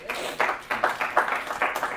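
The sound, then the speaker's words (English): A group of people clapping together in a steady, fairly quick rhythm, the claps blending into broad, crisp bursts at moderate loudness with no voices standing out. “All right, let's clap for him.”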